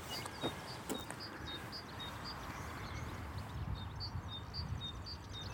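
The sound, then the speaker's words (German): Birds sing in a steady series of short, high chirps and whistles over a constant low rumble of background noise. No one speaks. “also Vogelpfeife ist ja nicht unbedingt das Geräusch, oder?”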